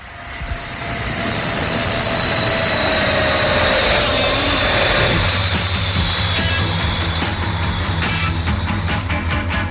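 A jet airplane engine roars loudly and steadily, with a high whining tone over a broad rumble that swells and holds close by throughout, no voices present.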